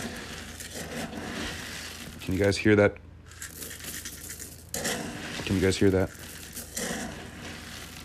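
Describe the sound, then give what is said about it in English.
Dry pet kibble being scooped, a crunchy, rattling rustle that comes in two main bursts, with a person speaking briefly in between; one scoop of food for a pet in an apartment. “It's me getting a scoop of crunchy souls for the demon that dwells in this apartment.”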